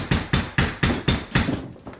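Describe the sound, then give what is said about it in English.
Heavy, rapid banging on a front door in the middle of the night by someone trying to get in, slamming the screen door: about seven or eight loud thuds in a steady rhythm, the last ones tapering off slightly. No voices. “Someone is banging on my front door trying to get in.”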